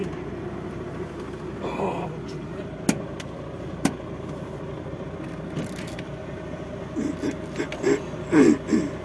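A car behind idles as it pulls out, a steady low engine rumble throughout, broken by two sharp clicks early on, while faint voices rise briefly near the end.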